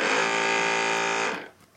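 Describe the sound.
A loud, steady buzzing chainsaw noise holds one harsh, even tone for over a second, then cuts off and fades quickly. No one speaks over it.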